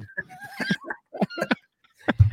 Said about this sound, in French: les vaches.